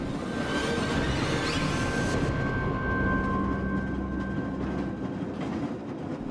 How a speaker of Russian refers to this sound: Пассажиры стояли молча в плавно покачивающемся на ходу вагоне трамвая